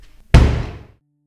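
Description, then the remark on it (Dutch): A single heavy prison cell door slams shut with a sharp, loud impact, followed by a brief ringing decay that fades out within about half a second. “En de deur gaat dicht.”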